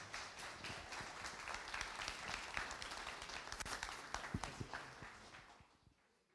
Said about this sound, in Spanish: les voy a pedir por favor que recibamos con un fuerte aplauso a José López